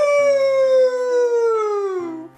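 A single long wolf howl, loud, holding a steady tone before sliding gradually downward in pitch and fading out after about two seconds, with no voices around it.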